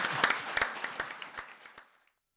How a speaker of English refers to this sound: Yeah, yeah, round of applause